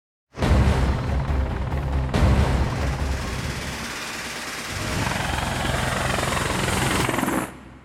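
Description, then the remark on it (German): Loud, dense roar of German Air Force military aircraft engines in a promotional video, with a helicopter-like throb, sustained for several seconds with a sharp shift partway through, then cutting off abruptly; no talking. “Dieses PR-Video der deutschen Luftwaffe klingt schon ganz schön nach Actionfilm und so klingt auch der Titel der Übung, die am 12.”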